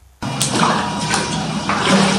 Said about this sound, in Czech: Ze šatny se stupuju po betonových schůdcích do vody, ze které stoupá pára.